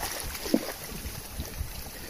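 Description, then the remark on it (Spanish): Steady, soft wash of sea water around a boat, a continuous hiss and slosh with one brief knock early on and no voices. “Estoy grabándote esta meditación desde el mar.”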